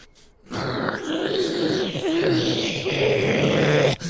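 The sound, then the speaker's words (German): A person imitates the growl of Bruce, a four-pawed creature in a role-play, with a low, sustained, rumbling snarl lasting several seconds, loud and continuous with slight wavering in pitch, beginning after a brief silence. “Er knurrt euch entgegen, als ihr kommt.”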